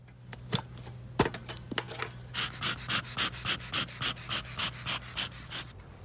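A beekeeper's smoker bellows puffs out about a dozen airy, evenly spaced bursts at a steady pace, following a few sharp clicks and knocks, all over a low constant hum, as the beekeeper smokes an opened beehive swarming with bees.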